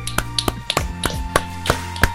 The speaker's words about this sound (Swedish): Precis, ska vi kanske göra en... En, en applåd en, till er. En applåd, ja.